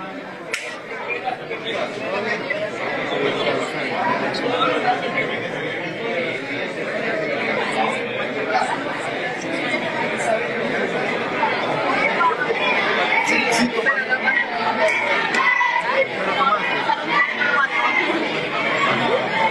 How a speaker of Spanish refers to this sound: Hay gente que está gritando Queremos ver a Messi y otros que están gritando, Chomito, Chomito.